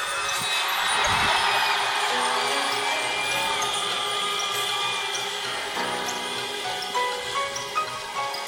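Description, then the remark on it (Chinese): A stadium crowd at a Chinese Professional Baseball League game applauds and cheers for player Wang Kuang-hui after the last hit of his career, in a steady, dense roar of clapping and voices that stays loud for the full stretch, with occasional brighter shouts rising above the wash. “谢谢，非常的谢谢，因为你们的掌声、你们的鼓励，我会我会永远放在心上。”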